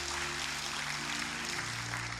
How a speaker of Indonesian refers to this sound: Berikan tepuk tangan buat Roh Kudus.